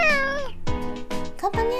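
A pet house cat meows repeatedly, several drawn-out, rising and falling cries in quick succession, loud and clear with no talking.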